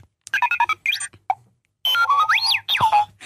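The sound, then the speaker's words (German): An electronic children's toy plays a burst of synthetic sounds: quick bleeps and boings, a popping plop, then rising and falling whistling tones, loud, with no talking. “Das hat man davon, wenn man Kindern Spielzeug schenkt, das Geräusche macht.”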